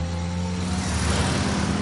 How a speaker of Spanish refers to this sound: Dos coches entran al puerto. Se detienen